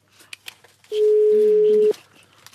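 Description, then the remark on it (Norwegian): A single loud, steady ringback tone from a call placed from a mobile phone sounds for about a second, with faint clicks and rustling before and after. “Jeg gir ett ring til, så ringer jo en gang til fra min mobil.”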